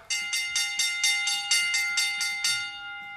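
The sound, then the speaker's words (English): A bright, metallic bell sound effect marking the bell lap on the radio show In the Locker Room with Wolf and Starks rings rapidly, struck about a dozen times in a quick, even rhythm, loud with no voices, its sustained tone lingering briefly as the strikes stop. “All right, we are now in the bell lap.”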